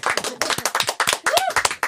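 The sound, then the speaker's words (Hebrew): Musicians clap their hands for themselves in a studio: quick, loud, slightly uneven claps that overlap into a brisk patter, with a brief voiced sound rising and falling partway through. “אצלנו באולפן, הנגנים מוחאים כפיים לעצמם.”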